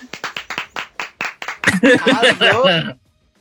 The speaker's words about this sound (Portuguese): Aplausos.